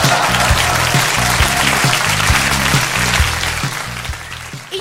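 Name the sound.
applause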